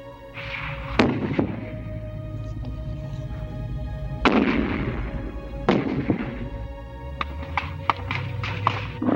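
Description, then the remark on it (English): Sharp gunshots crack out against a steady rumbling background as US Marines walk into the village of Cam Ne, Vietnam, a few isolated reports at first, then a quicker burst of several shots near the end, loud. “It first appeared that the Marines had been sniped at and that a few houses were made to pay.”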